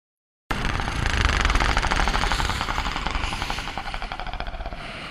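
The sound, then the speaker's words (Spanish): A deep, gravelly creature growl comes from the end of a hallway, rattling steadily for several seconds with a rough, pulsing texture, then loosening into slower throbs as it trails off. No voices are heard. “Un gruñido viene desde el fondo.”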